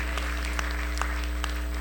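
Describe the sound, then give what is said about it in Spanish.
An audience at a church service applauds the Lord together, a steady wash of clapping from many hands with a few sharper claps standing out, over a low hum. “Dele un aplauso al Señor, porque el Señor es bueno.”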